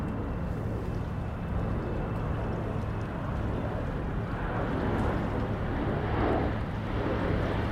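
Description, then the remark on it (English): An airliner carrying passengers passes overhead as a steady, deep roar that fills the whole stretch, swelling slightly near the end, with a faint windy hiss and no voices. “What airline is flying overhead? carrying its passengers safely home.”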